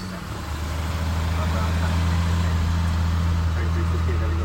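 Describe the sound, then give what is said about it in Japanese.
A steady low engine drone from inside a car creeping along in a traffic jam in Los Angeles at night, just before 9 pm, on the way back from Hollywood, with a continuous rumbling hum and faint road noise. “ハリウッドの帰りです9時は9時前ですね夜の。順調に渋滞です”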